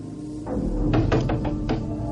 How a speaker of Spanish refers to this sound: Liz se alarma ante los golpes de la puerta.